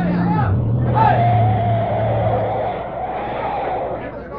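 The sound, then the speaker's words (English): A truck skids to a stop but cannot stop in time and hits a man, its low engine drone sliding down in pitch beneath a wavering tire squeal, with a murmur of crowd noise continuing after it halts. “Hey, I hit him. I couldn't stop in time.”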